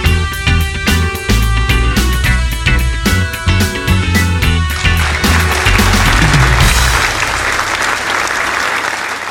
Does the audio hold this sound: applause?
yes